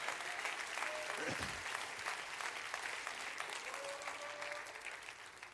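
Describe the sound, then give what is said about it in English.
A church audience claps steadily, a dense wash of many overlapping hand claps with no clear rhythm, holding at an even level the whole time, with a few brief tonal sounds rising faintly through it. “Clap your hands to that.”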